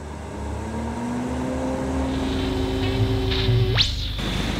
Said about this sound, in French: Le premier explique sa fortune de mer à un avion de la Marine nationale qui le survole.